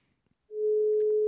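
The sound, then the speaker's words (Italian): A single steady telephone ringback tone on an outgoing call for the radio show All Weekend Sport sounds for under a second, a loud, pure electronic hum after a moment of near silence, cutting off abruptly. “Squilla, squilla quasi alto.”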